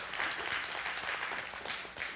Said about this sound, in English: So, way to go, moms. Let's clap for moms. Yeah, Paul does it. It's okay for us to do it.